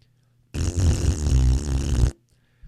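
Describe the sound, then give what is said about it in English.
A loud, sustained raspberry blown with the lips, a buzzy flapping fart imitation lasting about a second and a half, alone with no talking. “The biggest fart sound I can possibly muster.”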